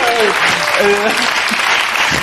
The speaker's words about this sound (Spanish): Por eso Leve abucheo, ¿eh? Leve abucheo.